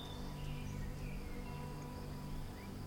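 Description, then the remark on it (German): Crickets chirping in the grass, a soft, steady, high-pitched trill that continues throughout, with a few faint bird-like chirps over a low background hum. No one speaks. “Jetzt, wo die Sonne im Schlummerland langsam untergeht und es Abend wird, zirpen es im Gras und die Bäume werden vom Wind fein hin und her bewegt.”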